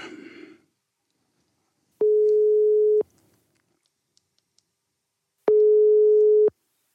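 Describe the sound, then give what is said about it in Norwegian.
Outgoing phone call ringback tone from a call to Mats Bø: two steady one-second electronic beeps separated by a long pause, clear, with no answer. A short burst of noise comes just before the first tone. “og nå ringer de Mats Bø.”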